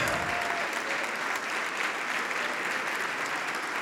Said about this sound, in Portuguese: Isso, vamos aplaudir.